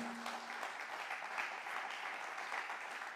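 A crowd at a sermon applauds steadily, giving the Lord a clap of praise, many hands clapping in a dense, continuous patter at an even loudness for the full few seconds, with no voices rising above it.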